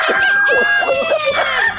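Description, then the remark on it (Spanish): A loud crow from a rooster of Oaxaca rings out for nearly two seconds, a strained, wavering call rich in harmonics with no voices over it. “Déjenme hablar del gallo de Oaxaca.”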